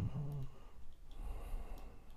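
Slow, deep breathing, a long airy inhale and exhale with a brief voiced hum at the start, heard on its own without talking.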